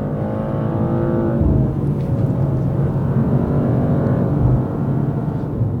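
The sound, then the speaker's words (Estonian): A BMW sports car with an internal combustion engine drives along with a steady, loud engine drone and rumbling road noise, the engine note rising and shifting as it accelerates, heard from inside the car with no talking. “ma loodan, et see helitaust tuleb läbi, sellepärast et ähm, on, mida kuulata ja on ähm, üks niisugune täiendav mõõde siis sellel autosõidul äh, juures.”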